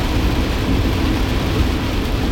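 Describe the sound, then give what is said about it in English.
Heavy rain pours down in a steady, dense roar with a deep low rumble underneath, constant and loud throughout with no pauses or voices, falling as snow melts and everything around is flooded. “this is ridiculous everything is just flooded right now literally everything is flooded all this snow's melting and the rain is just hammering”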